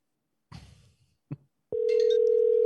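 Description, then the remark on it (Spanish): A couple of short rustling clicks, then a loud, steady telephone dial tone starts and holds unbroken to the end, like a phone line opening for an outgoing call. “Papá, vamos a hacer esta llamada y punto.”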